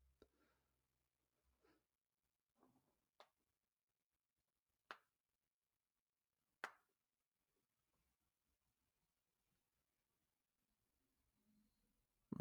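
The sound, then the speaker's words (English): Several sharp, isolated knocks sound at slow, uneven intervals, with three clearer raps standing out against near silence. They are fairly quiet. “if we hear the knocking, like how we just heard it there, that confirms the loops have now met up.”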